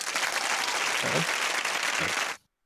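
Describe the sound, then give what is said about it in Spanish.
A recorded applause sound effect played as a congratulation: a burst of applause from many hands, a dense, steady crackle of clapping that holds at an even loudness for over two seconds and then cuts off abruptly into silence. “Ah, necesitamos algún sonido de felicitación. a ver, ah, un aplauso, aquí tengo uno.”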